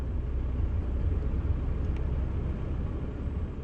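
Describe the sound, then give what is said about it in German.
Steady low engine rumble and road noise from inside a car driving through the jungle, a continuous droning hum with no voices, even and unbroken throughout. “Wir fahren mit ihr durch den Dschungel. Hier im Auto können wir ungestört reden, hier ist keine Polizei.”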